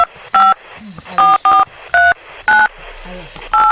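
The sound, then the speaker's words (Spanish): Six short beeping telephone keypad tones, each a clear dual-pitch burst, pressed at an uneven pace over a few seconds as a phone number is dialed to place a call, with quiet indistinct voices murmuring in the background. “¿Pueden marcar, por favor?”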